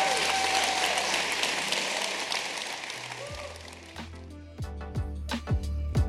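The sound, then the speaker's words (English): An audience breaks into sustained applause for a panel of guests, a dense, steady wash of clapping that thins out after a few seconds as deep, punchy thumps take over. “Can we clap our hands for these guys?”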